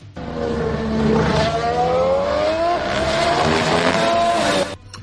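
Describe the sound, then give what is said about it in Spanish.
A Red Bull Formula 1 car screams past, its high engine whine rising in pitch with a rough, buzzing rattle as it runs over the kerb, loud and steady for several seconds before cutting off. “es un vídeo cortito de una de las pasadas de un Red Bull cuando pasa por encima de un piano”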